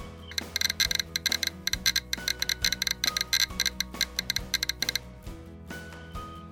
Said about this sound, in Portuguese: E ele é bem conhecido, né? Uhum. Por ele, ele emite um som bem particular uhum. quando ele detecta que tem alguma, alguma radiação ali.